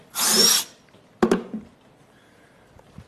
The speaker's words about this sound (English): it's like when you're drilling through a wall to hang something in your apartment, right? There's that moment when the drill first punctures through the wall, and there's this plunge, right?